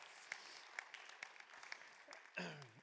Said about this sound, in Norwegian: Og det er fantastisk. 100 tenåringer. Yes. Det har vært en applaus.